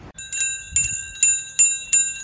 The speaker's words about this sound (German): Das ist das typische Geräusch in Zandvoort nicht nur das Dröhnen der Formel 1 Motoren, sondern vor allem die Fahrradklingeln, denn hier bewegt man sich am besten per Fahrrad von A nach B.